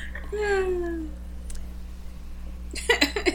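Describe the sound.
A cat lets out one drawn-out meow that slides downward in pitch, clear over a steady low hum, during an online video call, followed by a few short bursts of voice near the end.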